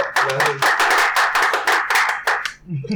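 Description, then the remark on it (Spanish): Quick, steady hand clapping to welcome a guest, about a dozen sharp claps in a brisk rhythm for a couple of seconds before trailing off, with faint voices murmuring underneath. “aquí le aplaudimos con la uña de 500 pesos”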